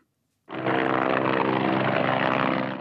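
After a brief silence, a military helicopter's engine and rotors kick in abruptly at the base at Rygge in Østfold, producing a loud, steady droning roar that holds constant to the end, with no voices.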